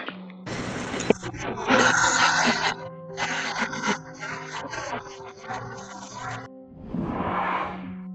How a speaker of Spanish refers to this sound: Y a continuación te presentamos el análisis que se le realizó a este audio. Se aislaron frecuencias para que puedas escuchar más a detalle la respiración de esta mujer. Escucha con mucha atención.